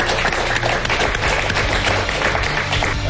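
Audience applause for an award winner: a dense, steady wash of many hands clapping at once, fairly loud and sustained throughout, with no single claps standing out.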